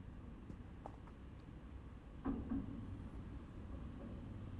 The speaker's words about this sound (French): c'est un, grand pont moderne euh, où passent deux trams et, beaucoup de, voitures.